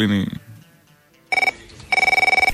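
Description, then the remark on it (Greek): A telephone rings in two short bursts of rapid, trilling electronic tone, loud, with a brief pause between rings. A voice is heard briefly just before the ringing starts. “ήθελε να κάνει το τελευταίο τηλεφώνημα”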